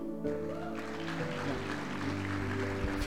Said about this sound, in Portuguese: Então, em nome de Jesus, aplaudo o Senhor.